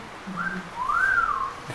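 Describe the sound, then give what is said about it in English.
A two-part wolf whistle: a short rising note, then a longer swooping tone that climbs and falls away. It's clear, with no talking. “Insert wolf whistle.”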